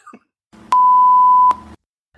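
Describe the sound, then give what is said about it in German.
A doorbell rings as one loud, steady electronic tone held for nearly a second, with sharp clicks at its start and end over a low buzzing hum. “Äh, eine Sekunde, es hat gerade geklingelt.”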